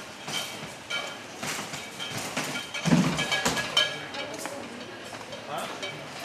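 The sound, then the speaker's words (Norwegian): Glass bottles clink faintly in duty-free shopping bags carried by passengers arriving from England at Gardermoen airport, amid a busy, echoing crowd, with scattered bright chinks over a steady murmur of indistinct voices and movement. “Og der er det mye fine dresser og klirrende poser. Noen som har vært i taxfree kan du høre.”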